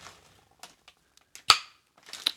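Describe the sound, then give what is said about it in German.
A few faint clicks and creaks build up to one sharp pop as the red lid of a pickle jar snaps open, followed by a brief hissy rustle. “Ich bin für die mit dem roten Deckel.”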